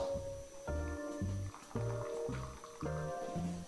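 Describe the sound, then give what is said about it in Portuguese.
Coffee brewing in an Italian moka pot from 100 ml of water and 10 grams of coffee after the heat is turned off, a steady run of gurgling, bubbling liquid bursts, roughly every half second, each with a hollow ringing tone. Moderately loud, with no voices. “E o café acaba de ser passado.”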